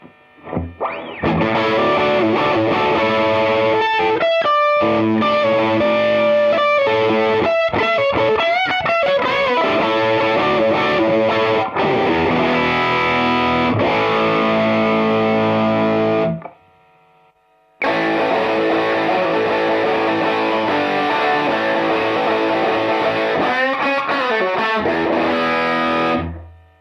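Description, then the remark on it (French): Distorted electric guitar through an amp-simulator pedal's factory preset named Modern May, with a thick, saturated tone, plays melodic lead lines and sustained notes, loud and alone, with a brief pause around the middle before resuming. “Et si je vais dans Factory, c'est là où il y a un son où c'est marqué Modern May.”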